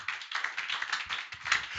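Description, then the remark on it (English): A church audience claps for the Lord during a sermon, a dense, steady burst of many overlapping hands, bright and sustained with small swells, lasting a couple of seconds with no voices over it. “Oh, somebody give the Lord a clap of him.”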